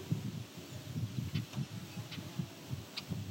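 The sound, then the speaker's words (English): A red-eyed vireo sings faintly in the distance, from a forest about half a kilometer east: short, high, separated phrases repeating every half second or so over a steady low rumble, with no voices. “actually hearing red-eyed vireo from a the distance.”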